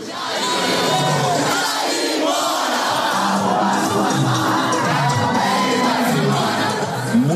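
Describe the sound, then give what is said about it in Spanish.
A large crowd cheering and shouting in celebration at night in Cinelandia square in central Rio de Janeiro, Brazil, after Bolsonaro's election defeat: a dense, continuous roar of many voices with scattered whoops and chants rising above it, loud and steady throughout. “pero esa noche era de celebración”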